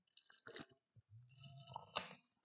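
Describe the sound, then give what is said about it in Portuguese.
A small sip of a drink: soft wet slurping and mouth noises, a brief gulp near the end, quiet and with no talking. “Deixa-me só ter aqui um golinho.”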